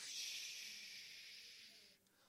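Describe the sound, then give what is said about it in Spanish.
A person makes a steady, breathy shhh sound with the mouth, imitating white noise hiss; it holds evenly for about two seconds, fairly quiet, then cuts off. “El ruido blanco es este ruido que”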